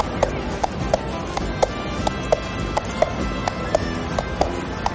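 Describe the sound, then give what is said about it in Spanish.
Horse hooves clop along the streets of a town in a steady, even rhythm as Don Quijote rides a horse during the town festivities, about a dozen sharp knocks over a low, continuous background rumble. “Don Quijote monta a caballo por las calles del pueblo.”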